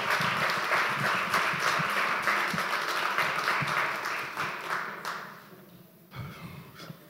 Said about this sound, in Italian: Vi chiedo di accogliere con un grandissimo applauso